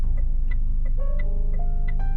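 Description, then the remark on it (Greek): A car's turn signal ticks steadily, about three clicks per second, over a constant low engine rumble with a faint tonal hum in the background, heard inside the car while driving. “Εν τω μεταξύ είμαι παιδιά στο αυτοκίνητο σήμερα και γράφω το δεκάλεπτο όπως πολλοί από εσάς θα είστε στο αυτοκίνητο όταν το ακούτε οπότε ήχη είναι φυσική όπως ζήτησε κάποιος φίλος μπορεί να ακούτε το flash δηλαδή”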